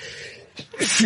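A single loud sneeze from allergies bursts out near the end after a brief intake of breath, with a faint hiss of background noise before it.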